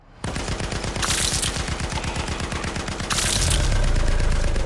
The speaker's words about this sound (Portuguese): Os disparos da metralhadora do Vetol vão limpando os corredores das ruínas das casas da Lenglo City. Vários gus são arrancados no meio com o calibre dos disparos.